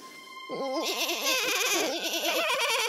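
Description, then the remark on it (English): Little goats bleat in a continuous, quavering chorus, several wavering cries overlapping for a few seconds after a brief quiet start. “When they arrived, they heard the voices of the little goats.”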